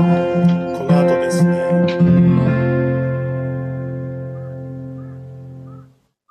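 A few harsh caws of a real crow, recorded in the daytime and cut and added onto the end of a song, ring out over the closing notes, then a sustained electronic chord lingers and slowly fades to silence.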